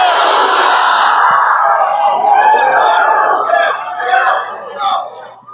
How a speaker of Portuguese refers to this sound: Só quem crê grite aleluia.